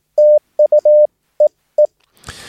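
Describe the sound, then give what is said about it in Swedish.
A steady, mid-pitched Morse code tone keys out a short sequence of long and short beeps sending 'thank you', ending in two spaced single dits ('dit-dit'), followed by a brief burst of radio static. “Och då kommer Sigurd Örn sexa tillbaka med kanske bara ja, thank you och ditt-ditt.”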